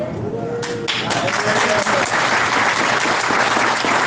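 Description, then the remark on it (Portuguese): Sustained audience applause for the Senegal team, a dense, loud wash of many hands clapping that holds steady for several seconds, with faint voices calling out underneath at the start. “As pessoas merecem uma salva de palmas mais forte, mais forte.”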